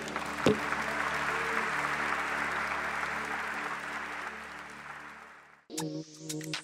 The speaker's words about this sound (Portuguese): Deus abençoe. E a igreja, se você puder dar um aplauso bem forte para